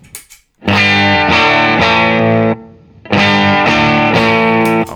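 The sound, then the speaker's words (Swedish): Electric guitar played through a clean boost pedal called Cleanish, without the preamp: two loud phrases of ringing, strummed chords with a brief gap between them, with no one talking. “Jag tror inte att det är clean boost som är den pedalens starka sida.”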